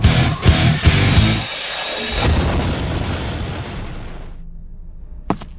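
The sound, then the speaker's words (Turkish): A self-destructing message explodes with a few heavy, crackling low booms, then a broad rumbling roar slowly dies away over several seconds, ending in near silence broken by one sharp click. “This message will self-destruct in five seconds.”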